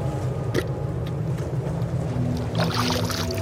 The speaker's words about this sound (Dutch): Zo, even wat water scheppen. Ja, hebbes.